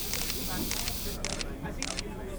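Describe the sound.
Four crisp camera shutter clicks, spaced a little over half a second apart, as people on a tour quickly take pictures, snapping clearly over a steady background of low murmuring voices.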